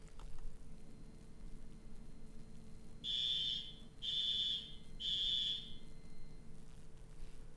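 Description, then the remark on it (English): Three loud, harsh alarm beeps, each about half a second long with short gaps between them, a shrill high-pitched tone like a smoke detector, sounding over a low steady background hum. “I, think the alarm sounds need to be uh, attentive, but also somewhat pleasing to the ears”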